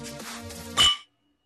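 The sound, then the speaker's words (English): Glasses clink together once in a toast, a bright, ringing chime that rises briefly over a soft tonal background, then quickly fades to silence. “Let's do our toast. Let's get on with it.”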